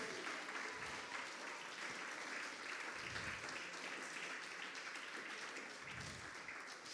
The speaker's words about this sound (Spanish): Déselo fuerte, si se lo va a dar, déselo. No ande con medios aplausos ahí para Dios. Y si le duelen las manos, póngale fe y Dios me va a sanar para aplaudir más fuerte a mi Dios, para darle toda la gloria a Dios a través de mis aplausos.